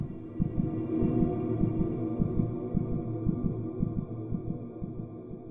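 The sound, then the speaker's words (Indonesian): A woman's fast, pounding heartbeat thumps in a rapid, steady rhythm, low and muffled, over a constant droning hum for several seconds with no voices. “Berdegup kencang jantung perempuan itu ketika ia membaca nama ayahnya.”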